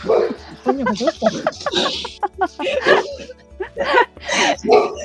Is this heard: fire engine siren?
no